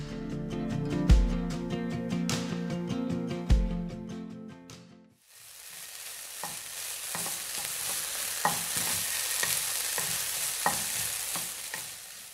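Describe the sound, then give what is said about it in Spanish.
A short musical passage ends, then hot oil sizzles steadily in a pan while frying food, a dense hiss with scattered pops and crackles continuing for several seconds, with no one speaking. “Pues es el sonido que hace ese elemento tan conocido al momento de freír algo.”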